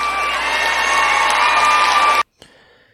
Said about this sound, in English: One of the more excited moments from the perspective of the crowd there